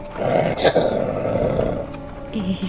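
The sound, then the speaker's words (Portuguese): A monstrous, rabid-sounding coyote, drooling and foaming at the mouth, growls and snarls loudly, a rough continuous rumble with a sharper roar near the start, lasting nearly three seconds. “E ele tá babando, espumando pela boca. E ele rosna para vocês.”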